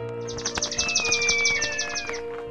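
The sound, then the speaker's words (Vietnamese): A rapid series of high, bright bird chirps runs for about two seconds alongside a clear sustained whistle-like call, with faint background hum and no talking. “Ôi, các con tôi, phải chăng vì đói quá Nên chúng đã hóa thành chim rồi ư”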